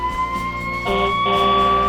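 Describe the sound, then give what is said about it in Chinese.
A police car siren wails as the police car chases a speeding black truck, with steady, high-pitched electronic tones that step up in pitch partway through, growing louder and more layered, with no voices present. “警车先生以惊人的速度追着小黑，那辆黑色卡车快停下来！”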